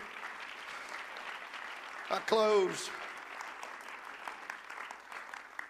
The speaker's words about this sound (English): Oh, come on, let's praise the Lord. Oh, give the Lord a good hand clap right now. He's worthy.